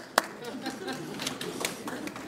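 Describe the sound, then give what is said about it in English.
Light, scattered applause as someone introduced as Jesus is called up to help with a lesson: a sharp clap at the start, then a thin patter of irregular claps from a small group, fairly quiet overall with a soft murmur of voices beneath. “Everybody give Jesus a round of applause.”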